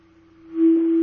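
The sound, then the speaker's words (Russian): A steady, loud feedback tone hums from a radio on a phone line, a single sustained pitch that swells louder partway through with a faint hiss around it and no one speaking. “Пожалуйста, приглушите ваше радио. Мы, э, у нас идет э, фон в эфире.”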